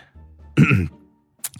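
A single short, throaty cough, voiced and fairly loud, lasting about a third of a second, followed by quiet and a faint breathy sound. It sounds like a person performing the cough.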